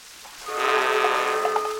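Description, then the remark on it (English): A single sustained, brassy dramatic chord swells in after a brief quiet moment and holds steadily to the end, loud, a sting marking the villain's entrance in the drama Desperate Desmond. “these were only single or double duns, not triple duns, not full blown dun dun duns”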